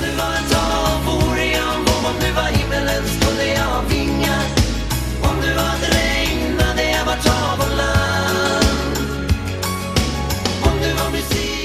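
A Swedish pop song from 1990 plays at a steady, full volume, with a regular beat, sustained layered instrumentation and bright upper tones running throughout without pause.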